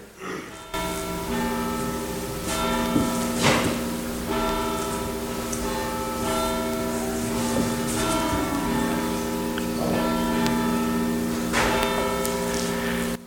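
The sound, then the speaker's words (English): Church bells ring continuously at 11:15, their overlapping strikes blending into a loud, sustained shimmering drone with irregular clangs throughout. No voices can be heard. “Now, we have not heard those bells ring like that in the time that I've been with you, and I've been with you seven and a half years.”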